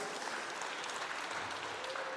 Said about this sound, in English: All right, good job, everybody. Give yourselves a round of applause. Nice job.